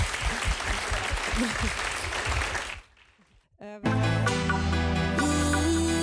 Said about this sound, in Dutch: En nogmaals een hartelijk applaus voor mevrouw Berry Wiekman.